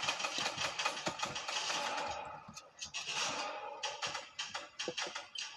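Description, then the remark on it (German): A car with people in it comes up from behind, its engine droning steadily throughout in a busy mid-pitched hum. Sharp, irregular clicks and taps punctuate it, especially toward the end. No one speaks. “Ich glaube, von hinten kommen welche mit Auto.”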